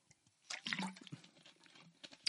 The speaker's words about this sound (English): Excuse me. Maybe I should take a drink of water instead of choking.